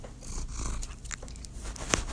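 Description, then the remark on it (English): A female cat purrs steadily, a continuous low rumbling throb lasting the whole moment, with a faint scratchy rustle and one brief sharp click near the end. “No, she just purring.”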